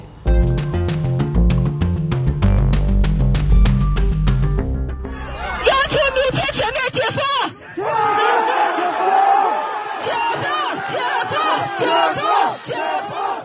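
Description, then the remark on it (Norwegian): Loud, rhythmic music opens, then gives way to a crowd of angry protesters shouting in the streets of China's Xinjiang province against strict Chinese coronavirus measures, many voices yelling together in overlapping, rising bursts that continue to the end. “Det er sinte demonstranter ute på gatene.”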